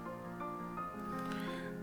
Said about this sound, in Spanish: Este. Otro gato.